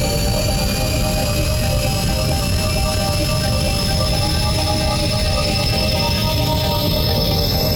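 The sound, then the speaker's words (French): The engine of reconnaissance ship VR-204 powering up for takeoff after undocking: a loud, steady roar of deep rumble with high whining tones layered over it, holding without a break and with no voices. “Puissance moteur”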